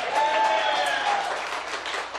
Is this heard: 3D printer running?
no